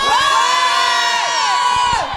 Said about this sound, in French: On va faire ça en deux fois. D'abord, ceux qui pensent que Rogue est gentil, hurlez maintenant.